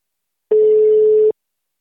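A telephone ringing tone heard over the line as a call is placed to a guest: one steady, mid-pitched electronic beep lasting under a second, loud and on its own with no voices.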